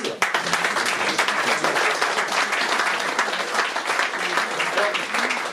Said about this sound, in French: Il me reste à vous remercier et à vous demander d'applaudir.